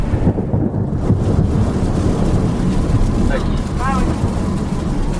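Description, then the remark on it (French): A long, heavy roll of thunder from a lightning strike 2 km away during a storm in a western region, rumbling steadily for several seconds, deep and loud without a sharp crack. A few faint chirps rise briefly near the end. “Voilà, celui-là est tombé à 2 km.”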